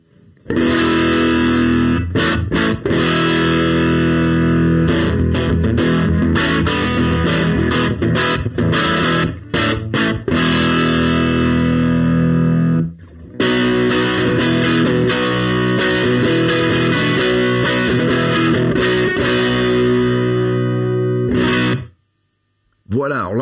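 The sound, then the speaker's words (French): Loud, heavily distorted electric guitar, run through a Neve 88M preamp placed between the guitar jack and the amp, plays thick, sustained chords and riffs, breaking off briefly midway and again near the end before a final strum. No one speaks. “Euh, donc, encore une fois, là, la 88M est intercalée entre mon jack qui est ici, vous voyez, que vous, arrivez, voyez arriver ici, et puis et puis l'ampli.”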